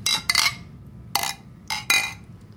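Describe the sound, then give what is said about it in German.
Beer glasses clink together in a toast, several bright chiming taps in quick succession, fairly loud, over a low murmur of background noise. “Ach, ich wollte auch mit dem Radler anstoßen.”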